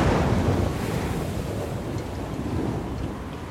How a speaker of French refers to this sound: Un jour, une terrible tempête souleva de telles vagues que la mer sembla se vider les pêcheurs s'accrochaient au rebord de leur barque sous un ciel déchaîné pour ne pas tomber à l'eau.